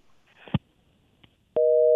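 On the sports radio station Escándalo 102.5 FM, a couple of faint clicks and a line crackle as a caller's call drops, then a loud, steady telephone busy tone starts abruptly and hums on without a break to the end. Nobody speaks.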